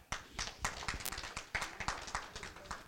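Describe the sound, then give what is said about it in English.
A crowd claps their hands together to give the Lord a hand clap. The claps form a dense, irregular patter of many sharp claps filling the whole stretch at a steady, moderate loudness. “Look, I want everybody to give the Lord a hand clap.”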